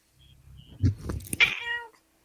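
A single drawn-out meow from Blob, an old female cat, fairly loud, rising into a strained, whiny cry before trailing off, with no talking over it.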